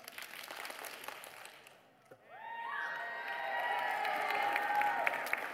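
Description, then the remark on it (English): A group of first- to fifth-grade children stands up, claps five times and cheers, with a brief lull before loud, high-pitched shouts and whoops rise over continued scattered clapping. “Um, all right, you have to stand up and clap five times.”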